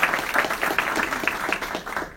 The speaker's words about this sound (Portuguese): Uma salva de palmas para ele também, gente.